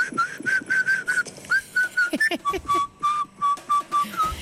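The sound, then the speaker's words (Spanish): Someone whistles a melody, a string of clear, pure notes in a steady, bouncy rhythm, the pitch dipping lower partway through, with faint breathy noise underneath and no talking. “Bueno, silbar, silbar, pero el silbido llega ahora.”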